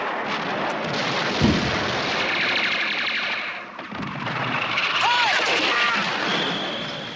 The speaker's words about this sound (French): Notre artillerie a répondu, aussitôt ils se sont tus. Maintenant, le canon tonne d'un côté et quelques-uns de nos obus passent en sifflant sur nos têtes et vont leur rendre visite, et quelques balles sifflent de temps à autre